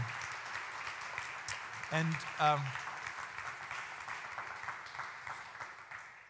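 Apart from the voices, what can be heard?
audience round of applause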